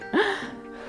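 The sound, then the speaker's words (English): A single heavy breath through the mouth during exercise, from a person with a stuffy nose, fairly loud, with a slightly voiced, gasping edge before trailing off into quieter breathy noise. “I can really just hear you, Greg. Because I was like, I'm a mouth breather and I'll apologize.”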